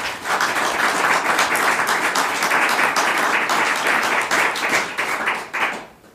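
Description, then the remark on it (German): Steady applause closing a show as goodbyes are said, a dense crackle of many hands clapping at once that holds evenly for about six seconds before thinning out and fading at the end. “würde ich sagen, mit dem Klatschen schneiden wir dann und sagen Tschüss.”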